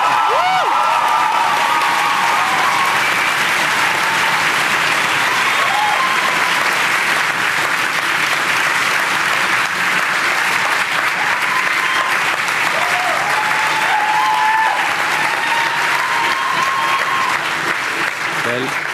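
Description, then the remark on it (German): Loud, sustained applause from a large crowd in a full lecture hall, a dense steady wash of clapping with a few scattered whoops rising above it, continuing without a break throughout. “Jetzt weiß ich, wieso Sie so optimistisch sind, wenn man so viel Applaus bekommt in einem vollen Hörsaal.”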